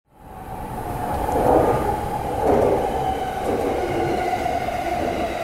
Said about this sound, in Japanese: この電車は山手線外回り。品川渋谷方面行きです次は有楽町有楽町お出口は左側です地下鉄日比谷線地下鉄有楽町線はお乗り換えです